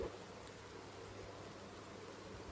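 Gentle monsoon rain falls steadily, a soft continuous hiss with faint patter and no voices, even and unbroken from start to finish.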